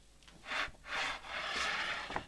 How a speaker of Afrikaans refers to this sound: Toe trek sy die kus nader.